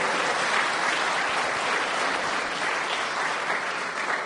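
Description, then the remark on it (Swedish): A church audience applauds steadily to welcome a new member, many hands clapping in a dense, even wash of sound that holds a constant loudness for the whole few seconds, with no voices standing out. “Ge honom också en applåd.”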